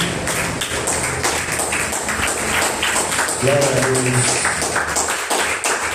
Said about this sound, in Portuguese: Aplauda o Senhor, amém?